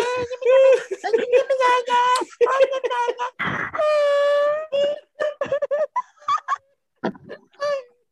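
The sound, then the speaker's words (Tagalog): A voice mimics the crying of Japanese people with exaggerated, sobbing wails in a series of pitched, quavering cries, with one long sustained wail in the middle, broken by giggles and short breathy bursts, fairly loud. “Iyak sila ng iyak, mukha silang,”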